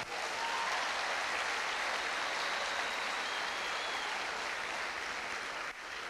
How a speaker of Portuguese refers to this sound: Dá um aplauso a essa pessoa que está do seu lado.